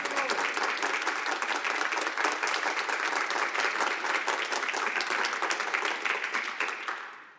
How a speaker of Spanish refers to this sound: Dale un aplauso a Jesús. Ok, ahora sí quiero que le des un aplauso con todo tu corazón. El mejor aplauso, el mejor aplauso de este fin de semana.